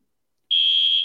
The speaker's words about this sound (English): My fire alarm is getting tested right now, so I'll let you guys know.